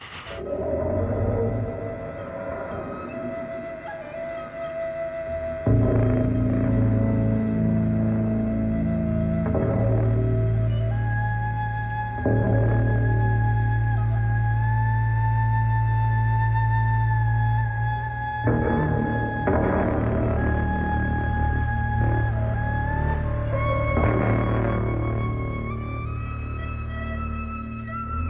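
A strange, experimental piece of music: a heavy low drone enters early and holds steady while eerie gliding and wavering tones slide above it, loud and continuous with no talking.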